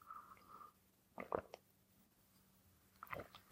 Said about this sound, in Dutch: Even een slokje.